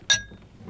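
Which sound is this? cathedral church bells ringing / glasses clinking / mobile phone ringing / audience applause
glasses clinking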